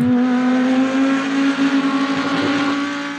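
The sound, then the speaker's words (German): A GT-class (Gran Turismo) race car engine roars loudly at high revs, a strong steady tone holding throughout before easing slightly as it passes, with no voices present. “Du bist Rennfahrer. Früher oft in der Formelklasse unterwegs gewesen, jetzt hauptsächlich in der sogenannten GT-GT-Klasse, also Gran Turismo, eine von diesen vielen verschiedenen Klassen.”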